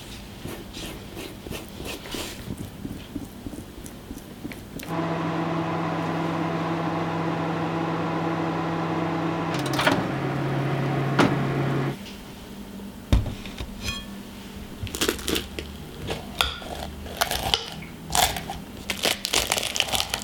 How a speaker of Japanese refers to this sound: 目覚めのいいね今朝は熱々ポットパイスープのいい音それではお聞きください